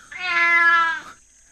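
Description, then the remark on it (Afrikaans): A single drawn-out cat meow, fairly loud, lasting about a second before fading into quiet. No one speaks. “Sy kat”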